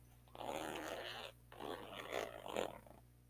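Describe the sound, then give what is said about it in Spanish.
A zipper is pulled closed in two raspy strokes, the second longer and building to a slightly louder finish, heard alone against a quiet background hum. “Cierra la cremallera.”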